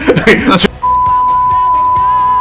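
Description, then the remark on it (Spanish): A steady, loud electronic beep at a single pitch sustains for nearly two seconds, covering a voice that keeps talking faintly underneath, right after a burst of speech. “Ponemos otra vez pitido, lo sentimos.”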